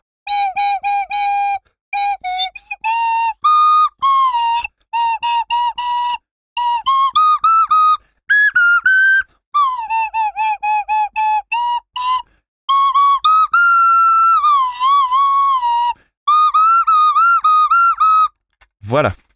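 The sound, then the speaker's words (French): A shrill toy whistle plays a classical tune in quick, wavering phrases with short gaps, its thin reedy tone wobbling in pitch, loud for nearly twenty seconds with no talking. “on sort le flutio … et on t'écoute. Aujourd'hui, je joue du classique.”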